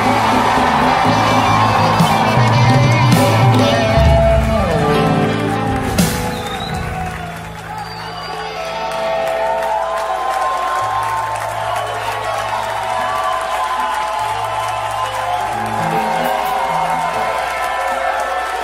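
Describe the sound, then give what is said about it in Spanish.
A church audience in Texas erupts in loud, sustained shouting and cheering during a worship service, with whoops and overlapping voices for the full stretch, swelling at the start and staying dense throughout. “Deme el grito más fuerte que tú puedas.”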